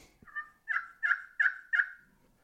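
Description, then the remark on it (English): Soft turkey tree yelps from a turkey call: a faint opening note, then four evenly spaced, raspy mid-pitched yelps in a steady rhythm, with no talking. “And all it is is a yelp, but it's a soft yelp. It's called a tree yelp.”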